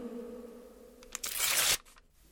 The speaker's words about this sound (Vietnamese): rồi lấy tay xé giấy làm đôi.